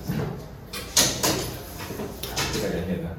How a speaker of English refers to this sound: Hold, uh, hold on one second. Let's close the door. Yeah, yeah. Good idea.